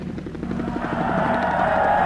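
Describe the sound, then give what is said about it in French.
Jamming interference on the broadcast of the radio station Lorraine Cœur: a loud, steady electronic drone with a fast throbbing pulse that swells into a wavering, warbling whine, filling the whole clip with no voices. “Maintenant, on peut le dire, on est brouillé.”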